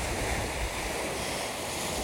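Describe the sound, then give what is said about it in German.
Steady ocean surf rushes continuously at a beach, heard from up the steps above the shore, a broad, even wash of waves with a faint windy hiss, fairly loud, with no voices over it. “Strand, also nicht ganz unten, sondern äh, die Treppen hoch, weil das Meeresrauschen da akustisch sehr gut rüberkommt.”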